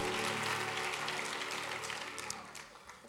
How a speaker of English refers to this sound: Give the Lord another great hand clap and you can be seated.